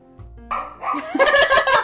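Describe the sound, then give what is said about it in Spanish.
A dog named Luna barks in a quick, excited run of yips and barks that builds in loudness and becomes a dense burst of barking, with no talking. “Puse pausa por si la luna estaba ladrando y no ladró. Y cuando pongo play, ladra.”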